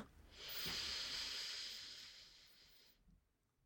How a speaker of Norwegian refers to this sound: Og bare pust dypt inn.